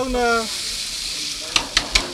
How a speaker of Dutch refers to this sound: Ja. Er gaat een papiertje tussen en, een, eh, en, een, en, eh, en dan druk je met, eh, met twee bakspatels eigenlijk druk je de burger plat. zachtjes duwen? Of?